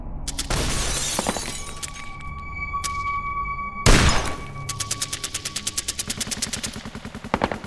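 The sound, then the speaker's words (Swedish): Loud machine-gun fire rattles at night in rapid bursts, with a sharp crash near the start and a heavy blast midway, followed by a long, steady volley of quick shots. No voices. “Natten var fylld av maskingevärseld.”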